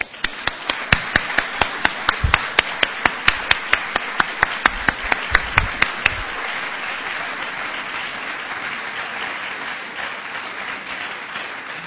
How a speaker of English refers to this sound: so may I ask you to join me in thanking them with a big round of applause.